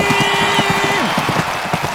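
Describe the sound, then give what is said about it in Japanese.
Quick, evenly spaced recorded footfalls pound along steadily, like someone running, over a bright busy background with a faint steady hum; a very clear, stable recording. “足音を収録しているとてもクリアな音質安定している聞こえてくるのは勝利の足音ゴールイン”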